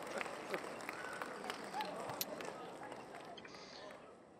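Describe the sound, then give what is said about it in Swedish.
Sustained applause from a group, a dense steady patter of many hands clapping with occasional sharper claps, continuing for several seconds before tapering slightly. “Aha, det var därför du drog den långa applåden.”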